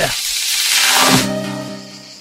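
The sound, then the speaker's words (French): A dense, loud wall of cicadas chirping fills the first second with a hissing, sizzling drone, then fades as a low voice-like tone takes over. “Bon, et eh, les cigales, ça suffit maintenant.”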